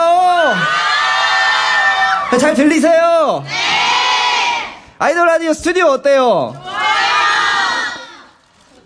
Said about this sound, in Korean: 예, 많은 분들이 또 이렇게, 네, 열정적으로, 또 응원을 밖에서 또 해주고 계시니까요. 오늘 호응 많이 해주실 거죠?